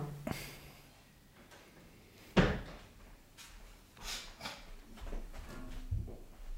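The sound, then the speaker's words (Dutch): A chair creaks and knocks, one sharp wooden clunk partway through followed by softer shifting creaks and rustling, with no one speaking. “Nee, nee, het was een stoel.”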